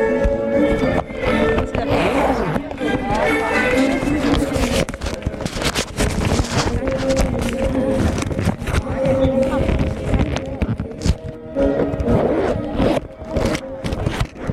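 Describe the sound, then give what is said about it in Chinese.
Sustained, loud audience applause at an honorary certificate presentation ceremony, with dense, crackling clapping that runs steadily for about fifteen seconds. A faint tonal melody, likely background music, carries underneath. “下面掌声有请西岗区妇联副主席张平为陈丽珍。”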